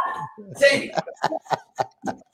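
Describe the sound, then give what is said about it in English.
Dogs bark in the background in a quick, steady run of about six sharp yaps, following a brief burst of voice at the start. “And your dogs are barking in the background.”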